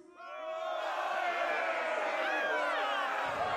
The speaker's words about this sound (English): Right now, there's a riot happening. Your cell is not being watched.